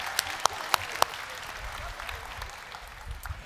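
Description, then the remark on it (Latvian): An audience breaks into applause, a dense wash of many hands clapping with a few sharp claps standing out early, sustained steadily for a few seconds at moderate volume. “Dosim aplausu kanānietim.”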